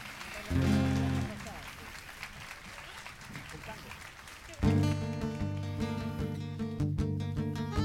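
An audience claps in a dense, steady patter for several seconds, with a brief sung or tonal note near the start, then music with strong sustained chords comes in over it.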